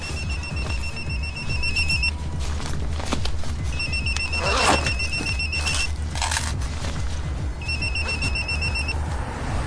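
A telephone busy signal: three bursts of rapid, high-pitched pulsed beeping, each about two seconds long with pauses between, sounding clearly over a steady low rumble of background noise.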